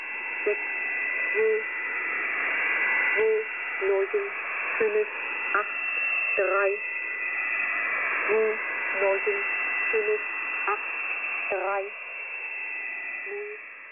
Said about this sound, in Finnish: Kylmän sodan vuosista asti satunnaiset kuuntelijat ovat saattaneet kuulla radioistaan hämmentävän aavemaisia lähetyksiä lyhytaaltotaajuuksilla. Esimerkiksi lähetyksiä, joissa naisääni lukee konemaisella äänellä saksankielisiä numerosarjoja.